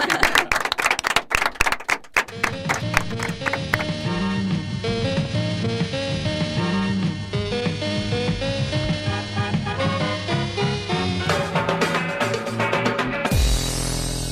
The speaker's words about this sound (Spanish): Y de momento te despedimos con este fuerte aplauso, aprovechando que por una vez te vemos con las dos manos libres. Gracias.